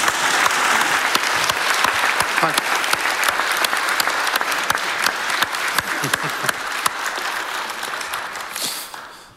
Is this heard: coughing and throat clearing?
no